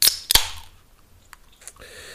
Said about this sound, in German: Ich öffne jetzt mein Getränk und dann werde ich dir erzählen, warum ich mit dieser Frage eingestiegen bin.